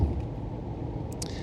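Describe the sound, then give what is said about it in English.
Steady low rumble of a car driving, heard from inside the car, a constant engine and road hum with brief hissy bursts near the end, and no voices. “I'm in my car right now, and uh, sometimes you just have to roll this way.”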